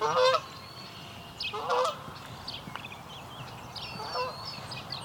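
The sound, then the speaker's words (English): A Canada goose honks three times at the Grimsby wetlands during the dawn chorus, loud harsh calls spaced a second or two apart, over a busy background of chirping songbirds including house sparrows and steady low ambient noise outdoors. “Comes a Canada goose.”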